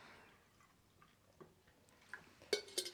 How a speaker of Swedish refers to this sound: Hur många det... män krävs det för att hälla upp en kopp te? Två tydligen. Två tysta, koncentrerade är svaret. Två om vi verkligen, verkligen försöker.